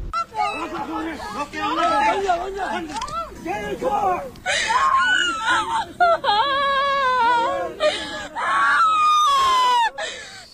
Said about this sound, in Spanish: Bueno, cuando las niñas ah. gritaban era porque a la mujer la estaban jalando y llevando hacia la patrulla los agentes tanto uniformados como los encubiertos.